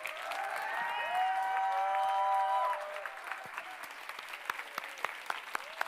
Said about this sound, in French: Est-ce qu'on peut ensemble applaudir Jésus encore oui. Plus fort, plus fort Tout le monde debout, on va applaudir Jésus ce matin.